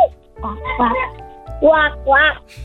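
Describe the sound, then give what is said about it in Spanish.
A child's voice imitates a duck when asked to, giving four short, nasal quack-like bursts in an uneven rhythm, fairly loud. “Ahora hazle como un pato.”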